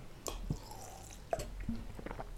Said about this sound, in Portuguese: Desculpem, pausa para água.